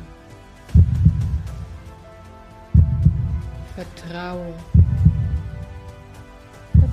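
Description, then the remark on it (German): Deep, booming heartbeat thuds repeat at a slow, steady pace, about one every two seconds, with a brief spoken word in the middle and a soft hum underneath. “Jeder Herzschlag deines Lebens als Mensch entspringt dem Herzschlag der Erde.”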